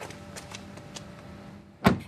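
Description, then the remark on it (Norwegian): A car seatbelt being fastened: soft rustling and sliding of the strap over a low hum, then one sharp, loud click as the buckle latches. No one speaks. “Et bilbelte blir festa, og med ny teknologi får du ikke starta bilen uten at beltet er på.”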